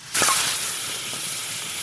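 Hot stones hit water with a sudden loud hiss that surges up and then holds as a steady, sizzling rush of steam, close by with no one speaking.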